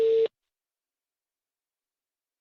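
A single short telephone ringing tone from an outgoing call, a steady mid-pitched beep lasting a fraction of a second, followed by silence. No one speaks.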